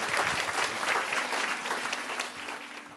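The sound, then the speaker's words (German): Sustained audience applause, a dense wash of many hands clapping steadily at a fairly loud level for about three seconds, tapering slightly at the end. “Ein Applaus für Maria.”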